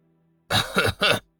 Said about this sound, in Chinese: 紫云真人故意咳嗽一声